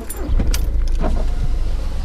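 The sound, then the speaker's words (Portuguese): Sounds of people getting back into a car: a few sharp clicks and rustling movements, a faint jingle like keys, over a steady low rumble of the vehicle interior. “depois de arrumarmos tudo como estava, voltamos a entrar no carro.”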